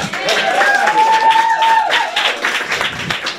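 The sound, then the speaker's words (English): An audience claps and cheers in steady, dense applause for band members as they are introduced, while a held musical note rings briefly over the noise before fading. “Get a big round of applause”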